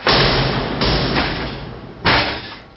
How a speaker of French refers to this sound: Cette fois, la moitié supérieure de la porte fut enfoncée sous le nouvel impact.